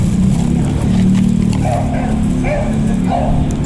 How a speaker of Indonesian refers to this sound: Ya, terdengar ya suara gonggongan.